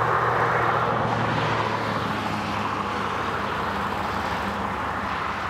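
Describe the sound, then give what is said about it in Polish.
Steady, loud rumble of heavy lorry traffic on the old A2 road heading toward Germany, with a deep engine drone, continuous throughout with no distinct pass-bys standing out and no voices. “Naliczyłam 40 tirów jadących w, środę, w stronę Niemiec.”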